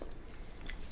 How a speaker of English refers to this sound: Also, if you're listening and not watching on YouTube, we're eating popcorn, which is why we sound like this.